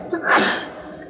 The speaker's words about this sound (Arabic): يرحمك الله